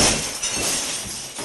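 Glass shatters loudly, a bright crashing burst followed by a rush of tinkling, scattering shards that keeps going for over a second with no voices.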